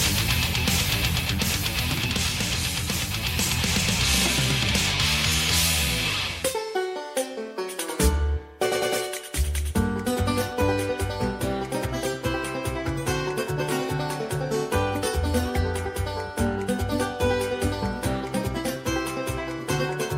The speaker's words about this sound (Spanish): La banda sonora de Mario Wonder, ya hablaré luego de ella, pero es una pasada.